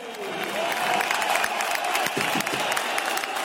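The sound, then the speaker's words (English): A large stadium crowd at a Beitar football match fills the air with steady, dense clapping, with whistles and jeering voices mixed into the loud, continuous roar, as some fans clap for and others jeer 19-year-old defender Gabriel Kadiev on his debut. “Some fans stood and clapped for the defender, but others whistled and jeered every time Kadiev touched the ball.”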